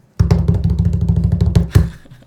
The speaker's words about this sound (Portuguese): Essa é a vinheta, entendeu?